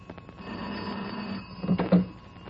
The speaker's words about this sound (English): My phone was ringing as I came down the hall.